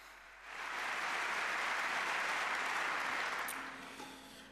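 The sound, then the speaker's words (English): At the Fnord News Show 2015, an audience breaks into steady clapping for the technology staff that swells quickly, holds at a full, dense level for a few seconds, then tapers off near the end, with no talking over it. “Small applause, please, for the technology staff in the house.”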